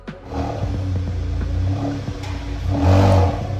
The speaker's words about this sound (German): Das ist kein Mensch, der besonders tief röhrt, sondern Katis Schatz ist ein Auto, ein Audi TT 8S Quattro, Baujahr 2016, 230 PS, kann mehr als 250 km/h schnell fahren.